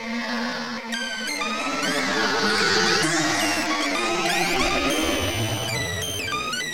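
A dense swarm of bees buzzes loudly and continuously, many overlapping whines rising and falling in pitch as if circling, with no talking.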